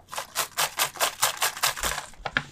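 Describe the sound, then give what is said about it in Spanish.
A small slip of paper crinkles and rustles in quick, repeated bursts, like it's being pulled out and unfolded, with no one speaking. “No sé cuántos papeles metí.”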